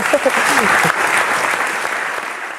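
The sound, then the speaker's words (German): Steady audience applause, a dense wash of clapping that holds loud and then tapers slightly toward the end, with a few voices briefly audible near the start. “Ja, und mit diesem warmen Applaus herzlich willkommen zum Hertha Base Podcast.”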